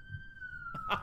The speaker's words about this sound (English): I'm sorry about the siren. You can probably hear the hell out of that. Yeah, uh, people are moving in for the first day, and they're setting off their fire alarms